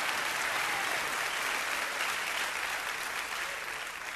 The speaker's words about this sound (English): Oh, you ought to clap and rejoice and give God a witness for His amazing grace in our life.